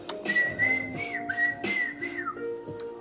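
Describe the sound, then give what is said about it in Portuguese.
Cheerful human whistling in long, sustained bird-like notes that slide up and down, carried clearly over a soft musical accompaniment. “Eu sou um passarinho, não precisa a borboleta dizer. Ya, ya, ya, ya, ya. Eu assobio com alegria.”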